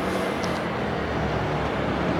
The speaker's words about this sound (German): Ich lasse erstmal die Autos vorbeifahren.